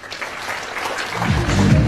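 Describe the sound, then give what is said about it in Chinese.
Audience applause given at the speaker's request during a talk on company control and shareholding, a dense steady patter of many hands clapping that swells slightly louder toward the end, with a low murmur entering in the last half second. “掌声告诉我。”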